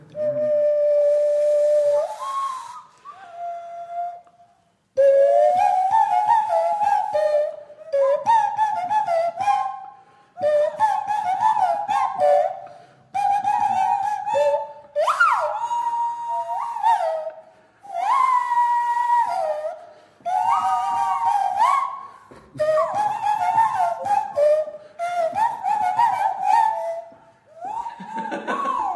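A nose flute plays a bouncy tune in short, breathy, whistling phrases with brief pauses between them, its reedy pitch sliding and wavering, loud and alone without any talking.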